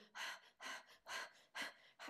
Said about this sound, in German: also ganz flach durchatmen und schnell durchatmen, eher aus der Brust durchatmen und so ganz ähm, ja, oberflächliche Art durchatmen. Und dann merkst du, das ist nicht unbedingt angenehm, körperlich.